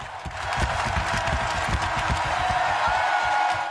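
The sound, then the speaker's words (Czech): A large crowd of hockey fans applauds loudly and steadily at a ceremony in a full hall in Pennsylvania honoring Jaromír Jágr, dense clapping with scattered cheers mixed in, sustained throughout. “Hlasitý potlesk na včerejší ceremonii, kromě samotného Jágra, sklidila od hokejových fanoušků také jeho matka Anna Jágrová.”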